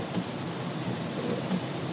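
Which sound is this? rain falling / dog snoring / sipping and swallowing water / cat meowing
rain falling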